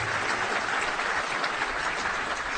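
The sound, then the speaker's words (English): A steady round of applause from a crowd, many hands clapping together in a dense, even patter that holds at a constant loudness for a few seconds, with no voices. “Yeah, that's definitely worth a round of applause.”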